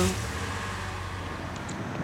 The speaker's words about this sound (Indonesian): saya balik lagi ke mobil saya nyalain mo mobil